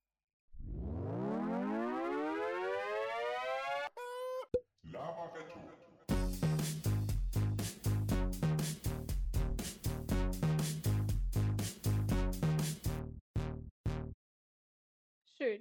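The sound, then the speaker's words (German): A short electronic jingle opens with a rising, siren-like synth sweep, then a bright, bouncy sequence of punchy staccato notes with a steady beat before ending on a few sparse hits. “Und ihr werdet jetzt unseren wundervollen Jingle hören, den wir äh, seit der letzten Folge haben produzieren lassen.”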